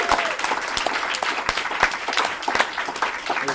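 An audience applauds the Philly Podfest organizers who set up the event, many hands clapping in a dense, loud, continuous patter with sharp individual claps standing out throughout.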